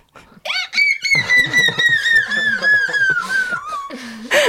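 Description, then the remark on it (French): A female singer imitates a seagull with a long, loud, high-pitched squawking cry that wavers and slowly slides downward, broken by a few choppy, laugh-like bursts. “J'allais te demander de nous imiter la mouette et c'était une euh, imitation euh, parfaite.”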